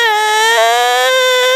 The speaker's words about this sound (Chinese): 爸爸听见克拉拉的哭声，赶紧过来关心发生了什么事。